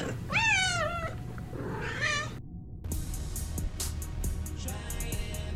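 A short opening jingle built from cat sounds: two loud, drawn-out meows, then a brief gap and a run of rhythmic, crisp tapping bursts over a low rumble.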